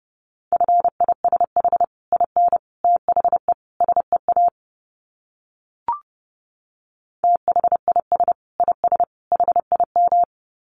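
Morse code beeping at a fast 30 words per minute: a single steady mid-pitched tone keyed into quick dots and dashes, two runs of characters separated by a pause with a brief click.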